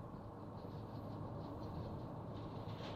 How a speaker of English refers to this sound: You hear that? That's that truck.